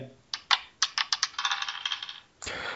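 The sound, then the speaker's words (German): Dice rolled by a person clatter across a hard table in a quick run of sharp, bouncing clicks that speed up and fade, followed by a short burst of rattling as they settle. No one speaks. “Ich würfel, also, ja, ich würfel.”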